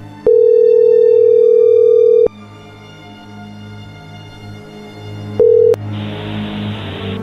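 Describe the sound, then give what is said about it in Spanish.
A phone's ringback tone while redialing someone: one loud, steady electronic tone lasting about two seconds, a pause with low background hum, then a brief second tone cut short by hiss. “ok, vamos a marcarle otra vez.”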